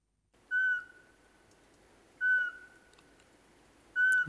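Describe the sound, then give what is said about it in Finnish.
Eurasian pygmy owl giving three evenly spaced, steady mellow whistles, each a single clear note about a second and a half apart, against a quiet background. “tässä taustalla taustalla muuten viheltää varpuspöllö.”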